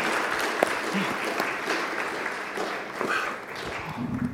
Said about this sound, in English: But let's give him a, a clap. You've all done really well.